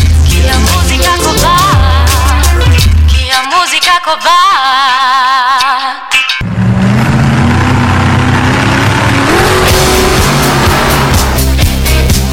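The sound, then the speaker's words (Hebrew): Loud car engines rev and roar with sharp tire squeals, continuous, briefly dropping to a high screech before the engines surge back in. No talking. “חממו מנועים, כי כל מה שרציתם לדעת על ג'יפים, מחנאות ושטח בתוכנית אחת.”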